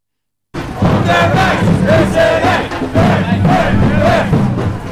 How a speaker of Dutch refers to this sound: nemen we je eerst nog even mee naar dat Malieveld van afgelopen vrijdag, waar … en ik met de daar aanwezige demonstranten en politici spraken